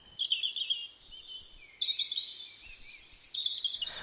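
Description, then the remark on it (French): A male songbird, perched in plain view on a branch in the breeding season, sings a continuous run of high whistled notes and rapid trills, phrases alternating in pitch, clear with no other sounds around it. “Au moment de la reproduction, le mâle chante perché en évidence sur une branche pour être bien vu et entendu de ses congénères. La suite de notes sifflées et roulées attire la femelle.”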